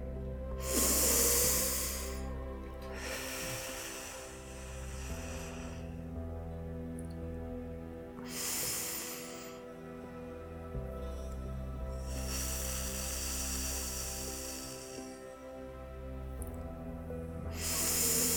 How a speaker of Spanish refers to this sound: Inhala por la nariz y exhala por la boca tres veces.